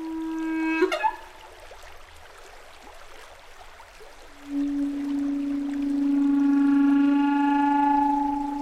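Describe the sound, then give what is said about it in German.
Steady rushing of flood water in a green-yellow stream with high, slippery banks, a continuous broad wash of noise, with a sustained droning tone rising over it in the second half and a short one near the start. “Hochwasser.”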